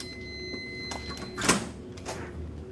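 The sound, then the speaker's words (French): An electric, card-locked security door in a P3 laboratory unlocks and opens, a sharp mechanical clunk rising over a steady electrical hum, followed by a softer sliding whoosh, with no one speaking. “Toutes les portes sont fermées, verrouillées et certaines sont électriques, fermées avec des cartes.”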